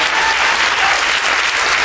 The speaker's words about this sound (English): and we certainly want to welcome all of our global, global partners that have come from around the world to celebrate with us what God is doing through this church called Bridgeway Christian Church. Can we clap our hands and welcome them?